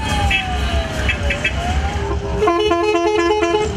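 Classic car horns honk over steady traffic rumble on the roads of Keçiören, Ankara, during 29 October celebrations, first a gliding siren-like tone, then a burst of rapid, pulsing toots in a stacked chord. No voices are heard.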